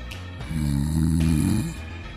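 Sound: voice imitating snoring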